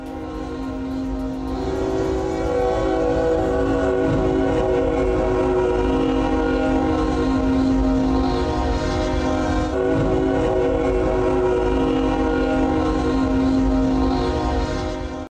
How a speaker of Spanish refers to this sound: En la grabación se escucha el silbato de la locomotora